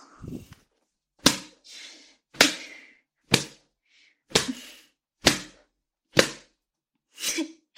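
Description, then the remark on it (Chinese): A whip lashes a person's genitals seven times at a steady, roughly one-second pace. Each strike is a loud, sharp crack with a short noisy tail, and softer swishes fall between some strikes. No voices. “嗯，被你的母上大人这样用鞭子抽打着下面，爽吗？”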